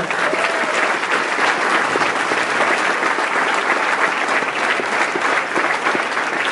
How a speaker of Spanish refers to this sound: Felicidades y fuerte aplauso para ustedes mismos para escuchar.